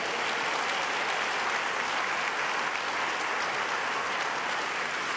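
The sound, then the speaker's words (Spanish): Sustained applause from a crowd, given to God, a dense, steady wash of many hands clapping at once, loud and unbroken for several seconds with no voices rising above it. “Y si Dios, gloria a Él, dale, dale el aplauso a Él.”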